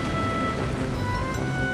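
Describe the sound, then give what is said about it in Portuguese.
Steady, dense rain from a thunderstorm with lightning and thunder roars outside without pause, with a heavy low rumble running underneath the whole time. No voices, just a constant loud wash of storm noise. “Não sei se já percebeste, mas lá fora vai uma grande confusão de raios, relâmpagos e que valente trovão!”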